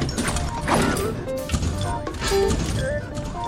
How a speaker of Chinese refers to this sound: 这就是正常战斗 BGM。